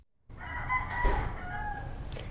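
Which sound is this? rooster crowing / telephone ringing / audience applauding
rooster crowing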